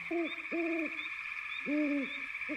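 An owl hoots four times in a slow, uneven series, each call a low rounded note, set against a steady high-pitched drone of insects or background hiss.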